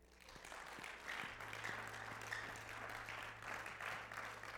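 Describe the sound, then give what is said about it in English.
A church audience claps together in sustained, dense applause with a steady wash of many hands, fairly loud and continuous for several seconds, with a low hum underneath. “Now give the Lord a hand clap.”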